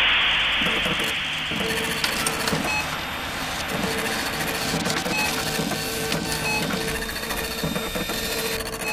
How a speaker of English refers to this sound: a single piece of paper aggressively and noisily prints out and falls to the ground.